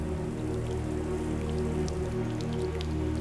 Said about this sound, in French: Après deux semaines d'horreur, de grève et de scandales, la pluie finit enfin par revenir mi-juillet et redonne à la Tamise son apparence habituelle.